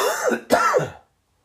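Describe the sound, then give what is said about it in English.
Two quick, rough throat-clearing coughs in close succession, loud, each a harsh burst of breath that fades to silence after about a second. “All right, sorry, coughing again there.”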